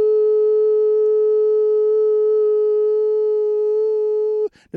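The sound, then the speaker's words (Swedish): A loud, steady simulated electronic beep tone holds at one mid pitch without pulsing for about four and a half seconds, then cuts off abruptly into a brief burst of noise. “Nu eh, orkar jag inte Oj, simulera två, två veckors pip för att det kommer ta ja, två veckor.”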